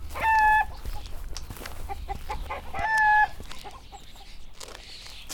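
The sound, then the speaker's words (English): Chickens cluck among well-kept beds of produce in Cookley, two louder drawn-out squawking calls standing out among softer, scattered clucks, with a low outdoor rumble underneath and no talking. “There are even chickens here, whose curious gaze follows me as I wander past.”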